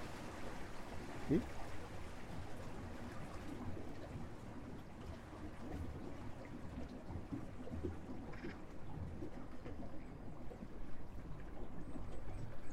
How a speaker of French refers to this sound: Alors là on entend quoi Un peu des oiseaux, puis l'eau, l'eau qui tape contre la côte du bateau au loin. Là, c'est là qu'on a les, les meilleurs moments.